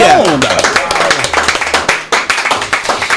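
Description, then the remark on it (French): A burst of hand clapping from a small group, steady and brisk for a few seconds, with a voice and a brief whistle-like tone at the very start. “Ou yes, on applaudit”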